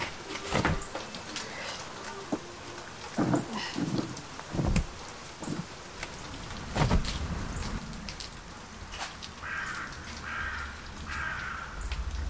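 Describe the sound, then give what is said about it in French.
Steady rain hisses throughout, with several loud crow caws and a buzzing insect drifting in near the end. No one speaks. “Et voilà l'heure de me démaquiller et de rentrer nu sous la pluie.”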